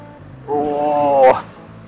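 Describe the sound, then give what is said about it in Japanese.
A bus passes by, giving off a loud, steady droning tone for about a second that ends in a brief harsh burst, with no talking. “おー、バスのお兄さんじゃなかったおじちゃんこれ怖いよ。”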